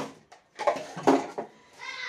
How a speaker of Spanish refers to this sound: Estoy lavando losa.